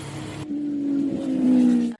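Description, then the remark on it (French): A motorcycle engine hums steadily while riding small country roads on a departmental road in bright, fine weather, its pitch climbing slightly and growing louder before cutting off abruptly, with no voices present. “Euh, ça m'a fait trop du bien de prendre la moto.”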